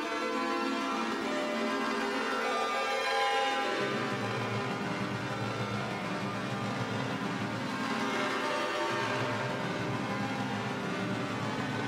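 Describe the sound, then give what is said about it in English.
Sustained, sequenced synthesizer chords from a Mutable Instruments Plaits module using its 8-4 variable square voices chord algorithm, with a bright, buzzy square-wave tone ringing out steadily at an even volume, the harmony shifting a couple of times, with no one speaking. “And it's one of the new uh, firmware algorithms, the um, 8-4 variable square voices for chords or arpeggios, I guess is what they call it.”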